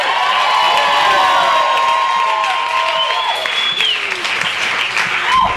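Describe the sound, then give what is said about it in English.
A large audience at a book event claps steadily to welcome a guest author while whoops and high cheers rise over the applause, loud, lasting throughout with no one speaking. “This is like a lively book crowd.”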